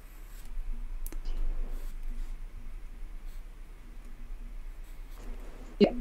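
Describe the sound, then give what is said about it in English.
Quiet, steady scratching of a pen drawing on paper, with a couple of sharp clicks along the way and no one talking. “I say that pens should be German or Japanese, and here I am drawing with my French maid.”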